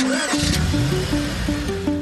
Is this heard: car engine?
yes